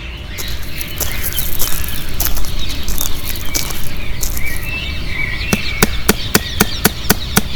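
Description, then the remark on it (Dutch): A hammer drives a nail into the wooden door of a brand-new church in Wittenberg, Germany, as Luther nails up a letter of 95 theses in 1517, first with scattered knocks, then a quick, steady run of about eight sharp blows near the end. Birds chirp softly in the background. “En zo kwam het dat Luther in 1517 in Wittenberg een kleine stad in het midden van Duitsland, op de deur van een gloednieuwe kerk een brief spijkert op de houten deur.”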